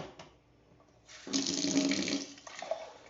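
Water runs from a tap into a glass, starting after a quiet moment with a steady hiss and a slight rising pitch as it fills, then cutting off.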